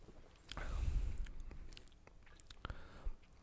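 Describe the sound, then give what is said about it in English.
Slurping as someone sips a beer, a soft wet swell of mouth noise followed by a few small clicks and swallows, with no talking. “So let's sip this beer.”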